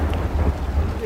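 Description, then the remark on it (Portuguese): A steady rumble of thunder rolls beneath the hiss of heavy rain, a dense, continuous storm wash filling the short clip with no clear voices. “começou o inverno, foi?”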